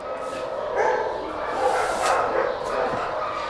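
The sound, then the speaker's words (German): Several dogs, mostly Podencos and other smaller dogs, bark and yip continuously in kennel enclosures, a busy overlapping chorus at moderate loudness with occasional higher whines, with a voice talking underneath. “Sind jetzt in den Gehegen, wo die kleineren Hunde sind und vorwiegend Podenkos, aber auch ganz andere Hunde.”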